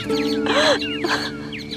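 Several birds chirp and tweet in quick, overlapping bursts, fairly close and moderately loud, over a faint steady hum, with no one speaking.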